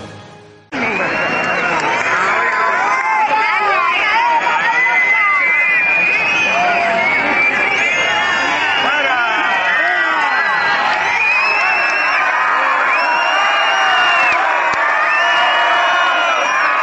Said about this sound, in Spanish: Bueno, pues seguramente habrá sido la pitada de la semana.